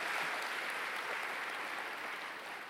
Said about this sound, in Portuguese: Ficou ali, pode aplaudir o Senhor.